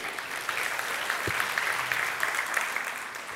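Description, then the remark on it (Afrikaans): An audience claps hands together in sustained, dense applause, many overlapping claps forming a steady crackling wash at even loudness throughout, with no voices standing out. “Dankie vir gesê vir 'n lekker hande klap toe.”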